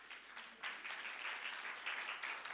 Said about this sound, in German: Ja, können wir Beifall geben? Ja, ich finde das schön, damit man hört, wie viele jetzt wieder hier sind.